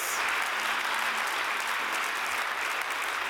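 An audience claps for God during a sermon in a steady, dense wash of applause that holds at an even, fairly loud level for several seconds, with no voices standing out.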